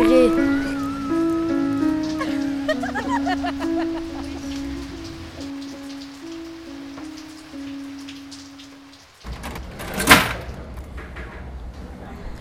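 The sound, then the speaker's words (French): Steady January rain in Aubervilliers patters on a hard surface, an even hiss that grows clearer in the second half, with one sharper splash or knock standing out near the end, after a humming tonal passage. “En mois de janvier, il fait que de flotter.”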